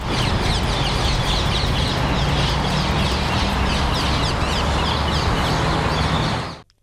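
A dense chorus of harsh, chattering calls from invasive exotic birds flying over the tops of the tallest trees around María Luisa park, many birds squawking at once over a steady low rumble of traffic, continuous and fairly loud until it cuts off.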